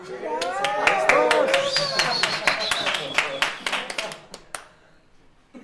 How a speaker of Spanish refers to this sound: eso es aplaudimos o qué? Claro.